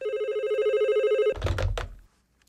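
A telephone rings with a steady, bright electronic tone for over a second, then cuts off abruptly, followed by a brief clatter as if the receiver is picked up.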